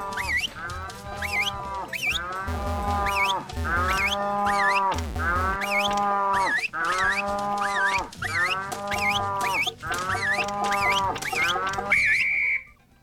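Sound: cow mooing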